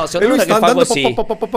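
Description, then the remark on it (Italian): A person talks briefly, then mimics the engine of a tractor-shaped ride-on lawnmower hauling grass behind it on a motorway, with a quick, even run of four or five clipped 'po' syllables, fairly loud. “con uno, un tagliaerba di quelli a forma di trattorino e dietro sta portando l'erba che la senti ogni tanto che quando le buche no,”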